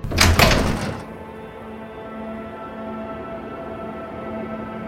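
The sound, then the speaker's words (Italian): A door leading from an attic out onto a roof opens with a loud, brief clunk and rattle, then gives way to a steady, low ambient hum that lingers after it. “Aprii la porta che dava all'esterno e mi trovai sul tetto.”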